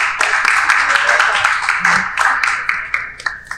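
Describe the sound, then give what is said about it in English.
A burst of audience applause in the room at 1122 MMG Studios, given for the sponsor Members Only: dense, steady clapping from many hands that thins toward the end into a few scattered, sharper claps. “Shout out to members only you know, I mean, can I get a round of applause in the room for members only?”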